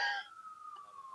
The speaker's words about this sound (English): I'm hearing a siren. It hopefully goes away.